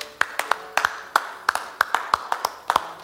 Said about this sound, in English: You know who was clapping? Which one? Who was what? You know which was which? You don't know. We were both just clapping to be clapping.